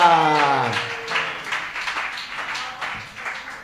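An audience applauds steadily for a few seconds to welcome two boxing athletes from the All Boxing Team as guests, a dense patter of many hands clapping at moderate loudness, starting under a brief tonal, musical-sounding flourish.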